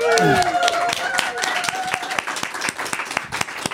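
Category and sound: crowd, audience applause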